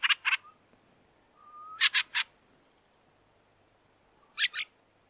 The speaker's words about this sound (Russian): Собственно, сразу Дрозда Рябинника и послушаем. А, Ирин, можно нам Дрозда Рябинника? Я обращаюсь к звукорежиссеру. Сейчас а, насладимся его пением.